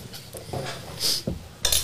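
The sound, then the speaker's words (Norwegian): Two bright, high-pitched clinks of a champagne glass ring out about half a second apart, each with a short shimmering tone, amid soft clattering and handling noises; no one speaks. “Selvfølgelig et champagneglass.”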